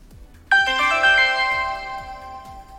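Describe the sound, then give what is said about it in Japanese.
A bright, melodic phone ringtone for an incoming call during a live stream chimes in abruptly and rings on with sustained electronic tones, loud, over a soft rhythmic thumping in the background. “ちなみに着信があったライブ着信している間の長い空白の時間我慢の緊張状態が続くわけですけれどもアーカイブではその空白は自動的に上手にカットされるんですね”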